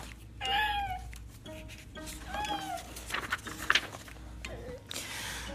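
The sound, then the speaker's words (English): A boy imitates a cat, giving two drawn-out, wavering meows, followed by a few quieter squeaky sounds over a steady low background hum. “Whoa, he is a meow today.”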